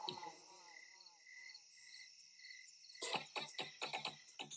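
Crickets chirp in a steady, continuous high trill throughout, joined first by a soft tonal, voice-like melody and then by a run of sharp rhythmic percussive hits near the end.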